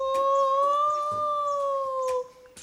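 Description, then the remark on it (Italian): A voice lets out a long, mournful howl-like cry held on a steady, slightly wavering pitch for about two seconds before breaking off, with faint scattered clicks in the background and no talking. “Proprio in quel momento si udì un fischio prolungato, poi una voce lanciò un grido lamentoso.”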